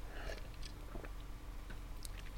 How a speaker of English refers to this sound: I had to take a sip. I had to take a sip of beer.